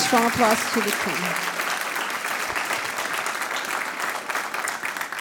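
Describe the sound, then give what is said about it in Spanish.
Loud, sustained applause from a crowd for the King, a dense steady clatter of many hands lasting the whole stretch, with a voice briefly heard over it at the beginning. “ese fuerte aplauso al rey.”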